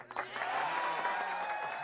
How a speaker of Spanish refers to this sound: Escuchando los aplausos.